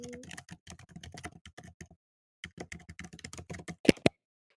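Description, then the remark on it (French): Rapid keyboard typing of a short chat message, a fast run of light clicks, then a short pause, another burst of keystrokes and a couple of sharper, louder key taps at the end. “Je vais quand même envoyer un petit message. Est-ce que vous m'entendez”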